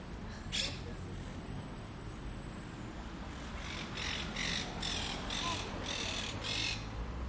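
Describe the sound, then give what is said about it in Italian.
Green parrots squawk outdoors: one harsh call early on, then a rapid run of about seven shrill squawks over steady background noise of a busy open-air place. “Sì, sì, sì, pappagalli. Guardalo, guardalo, bello, verde.”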